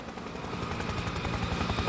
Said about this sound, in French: Attendez, hélico en approche.